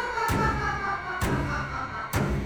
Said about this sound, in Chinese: 门外咚咚的敲打着，疯狂的笑着，又重新敲打着。